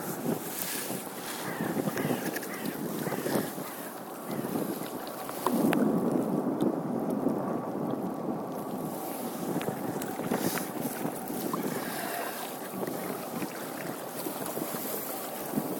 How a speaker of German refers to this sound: zwei dicke Pötte kommen dann noch, die sich hier den Rhein hochkämpfen.